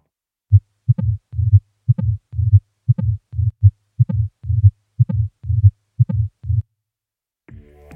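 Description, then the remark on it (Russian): Recorded heartbeat with a tricuspid stenosis heart murmur, heard at the base of the xiphoid process and carrying slightly to the right: a low, rumbling murmur follows each beat, repeating about ten times in a steady rhythm, clear, fading briefly into a faint low sound at the end. “Шум при стенозе трехстворчатого клапана лучше всего выслушивается в области основания мечевидного отростка и немного проводится вправо.”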